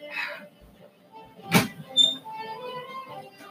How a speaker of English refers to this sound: One second. Let me close the door.